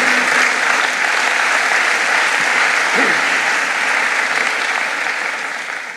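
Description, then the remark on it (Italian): An audience applauds the Holy Spirit in the name of Jesus, steadily for six seconds, a dense, even wash of clapping that holds its loudness and only begins to thin slightly at the very end. “Nel nome di Gesù facciamo un applauso allo Spirito Santo, che è meraviglioso, che è qui, che è presente.”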